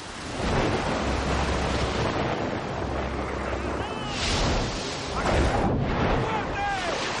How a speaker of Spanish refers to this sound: De noche, una gran tormenta cae sobre el mar.